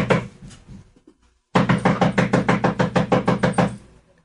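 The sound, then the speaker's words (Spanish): Rapid, steady knocking on the wooden door of a small white rented house in San Blas, about a dozen firm raps in quick succession, preceded by a few softer knocks and a brief pause. Fairly loud, with no voices. “Don Filiberto llegó y empezó a llamar a la puerta.”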